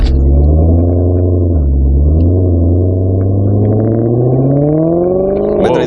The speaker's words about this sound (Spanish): Es más, fíjate, arrancamos el coche y nos vamos para allá.